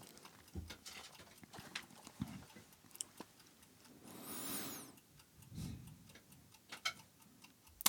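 A wind-up alarm clock timer ticks steadily with sharp, dry clicks, broken midway by a brief bright rattling burst before the ticking carries on. No one speaks.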